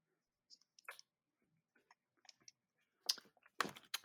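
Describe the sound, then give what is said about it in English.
Quiet drinking of water: scattered soft mouth clicks and small sips, followed by two louder gulping swallows near the end, with no one talking. “Sorry, I'm drinking water because I'm thirsty.”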